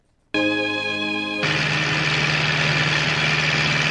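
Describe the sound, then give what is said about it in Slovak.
Tractor engines idle with a steady, buzzing drone, then the sound thickens into a louder, rougher rumble that holds on to the end. No voices. “traktory.”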